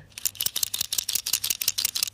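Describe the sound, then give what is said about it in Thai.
A permanent marker squeaks and scratches across a surface in quick, repeated strokes, bright and high-pitched, with short pauses between bursts and no talking. “ได้ยินไหมคะ มันคือเสียงปากกาเคมีค่ะ ปากกาเคมีเอามาใช้ทำอะไร”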